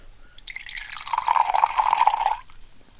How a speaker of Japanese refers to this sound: これね注ぐ時に音を取るでしょそうするとさこの音を聞いていたいからさついついいっぱい注いじゃうわけよ